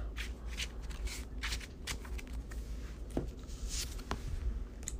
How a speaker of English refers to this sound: Shuffle back in the deck.